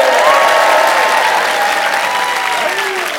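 A large crowd at the Apollo claps steadily and loudly throughout, mixed with cheers and shouts. A few high whistles or calls rise above the dense applause, which fades only slightly toward the end.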